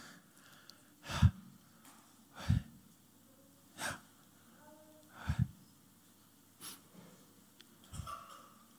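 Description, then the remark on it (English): Slow, audible breaths repeat at a steady pace, about six soft whooshing inhales and exhales from a group of people breathing with eyes shut, with no one speaking. “You're all breathing very quietly.”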